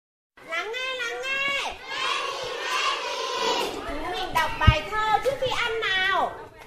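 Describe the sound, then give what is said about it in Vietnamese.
A crowd of young kindergarten children at lunch at a kindergarten in Thuận Châu district, Sơn La province, Vietnam, chatter and call out all at once, high-pitched voices overlapping in a lively hubbub, with a brief sharp knock partway through. “Bữa trưa của các em nhỏ học sinh trường mầm non Bình Minh Co Mạ, huyện Thuận Châu, tỉnh Sơn La, lúc nào cũng rộn ràng díu dít”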